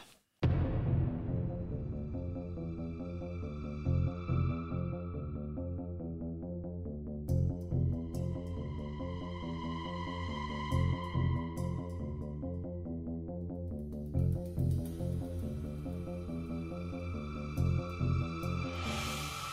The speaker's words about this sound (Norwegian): Ok, nå tar vi en kort pausetone, så er vi ja. raskt tilbake.